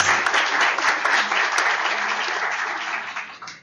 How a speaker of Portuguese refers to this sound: Uma salva de palmas.